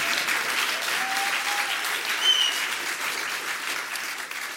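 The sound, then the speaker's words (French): A crowd claps steadily and continuously, a dense wash of applause filling the whole stretch with a few brief whistles cutting through, fairly loud. “Du bruit pour eux, même s'ils n'en font pas eux-mêmes.”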